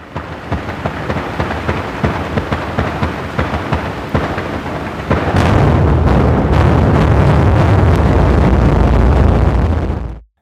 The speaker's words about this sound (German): Und jetzt noch eine sehr eindrucksvolle Aufnahme, und zwar kollidierende Eisberge. Und Achtung, das wird laut.